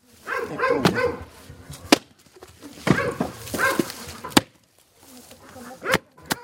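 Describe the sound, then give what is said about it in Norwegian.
Several sharp, loud axe strikes split firewood at irregular intervals in Bulgaria, each a crisp crack standing out over murmuring voices and other outdoor noise in the background. “Svært mange bulgarere hogger nå sin egen ved for å få ned strømutgiftene.”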